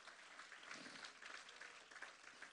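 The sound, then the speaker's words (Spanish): A church audience claps for God at a preacher's request, a dense wash of many hands applauding at once, sustained and fairly loud throughout with no talking over it. “Le puede dar un aplauso a Dios. Déselo fuerte.”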